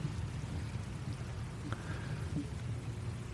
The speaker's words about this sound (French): il commence à pleuvoir. Un froid mordant vous saisit, il y a du vent. Et il pleut,